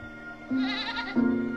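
A goat bleats twice in quick succession, each call a loud, wavering, nasal cry with a steady low pitch; the second bleat comes right after the first and sounds slightly stronger.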